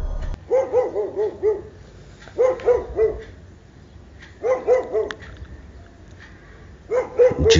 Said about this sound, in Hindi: अचानक कुत्ते भौंकना शुरू कर देते हैं